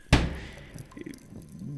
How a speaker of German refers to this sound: Ihr hört das dumpfe Schlagen einer Tür.